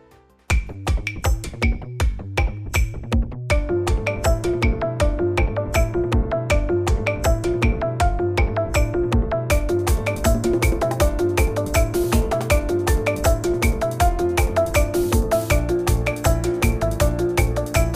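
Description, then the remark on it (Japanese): A programmed electronic music track plays the sequenced opening part of a song being composed: a bright rhythmic opening with steady beats and layered synth tones that fill out and grow busier partway through, loud and continuous with no voices. “この後にねちょっと触りだけ最初の部分ねも入力したのを皆さんにちょっとだけ聞いてもらいたいなと思います”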